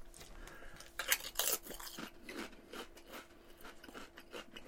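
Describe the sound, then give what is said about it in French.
Crunchy salted chips being chewed, with a few loud, sharp crackling bites early on, then a steady run of softer rhythmic munching for several seconds. “on dirait des chips salé vinaigre et ben, qui ont oublié de mettre le vinaigre dedans.”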